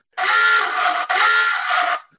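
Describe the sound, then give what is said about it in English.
A loud, harsh quiz buzzer sounds twice in quick succession as a contestant buzzes in during a trivia game, each blast nearly a second long with a raspy, buzzing tone and a tiny break between them, with no talking over it. “Greg, Greg buzzed in.”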